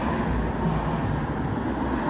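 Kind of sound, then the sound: vehicle, road traffic passing nearby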